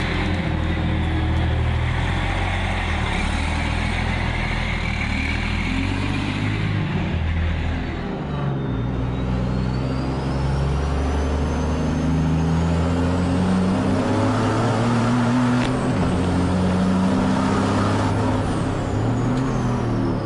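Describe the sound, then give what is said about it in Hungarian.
A Renault racing truck engine roars loudly and continuously, its deep rumble climbing and dropping in pitch as it revs repeatedly, with no voices throughout. “Ez a, ez a, ez a Renault versenykamionnak a, a hangja.”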